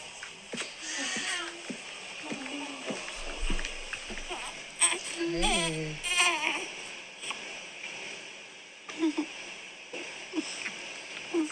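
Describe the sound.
A newborn baby just after birth gives a few short, thin wailing cries in the middle, while adults talk quietly around it and water splashes faintly now and then.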